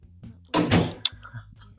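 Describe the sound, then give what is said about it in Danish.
A door bumps and rattles: a broad, heavy thud lasting about half a second, then a sharp click as it latches, with a low hum underneath. “Jamen, øh, jeg, jeg kender døren, så øh, det må jeg hellere tage jo.”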